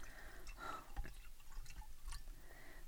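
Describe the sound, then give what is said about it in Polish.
Water pours into a glass in a quiet trickle during a water break, with a few drippy splashes and gurgles over about three seconds. No one speaks. “Tak, przerwa na wodę, trzeba tak się jest.”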